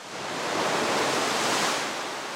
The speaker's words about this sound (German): Am Kanal türmen sich die Wellen bereits, aber sie brechen noch nicht.